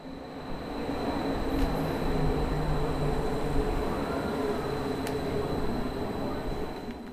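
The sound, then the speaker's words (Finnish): Steady rumble of an Athens metro train in motion in Greece, a continuous low roar with a faint electrical whine above it and a couple of brief metallic clicks, heard from inside the carriage. “Ajan henki Kreikassa on kuin Atenan metro. Juna liikkuu, mutta vaunut ovat odottaneet uusimista jo pitkään, liikenne ei riitä asukkaiden tarpeisiin ja iloiset ilmeet ovat metrossa vähissä.”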